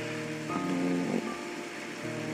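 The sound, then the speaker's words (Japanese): Steady rain in Nagasaki hisses continuously outside an old traditional Japanese house, a dense, even wash of falling drops with a faint low tonal hum rising briefly in the middle. No one speaks. “音がもしかしたら聞こえてるかもしれませんが、えー、長崎は今日も雨でございます。”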